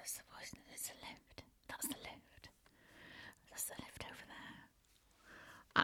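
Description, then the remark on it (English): A voice imitates the hushed whispering of people in a room, breathy and unvoiced, in short hissy bursts with sharp sibilants and brief pauses, fairly quiet, ending in a crisp click. “So, I was aware suddenly of people in the room sort of looking at me and sort of whispering, and then I could hear”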